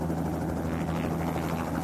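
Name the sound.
helicopter flying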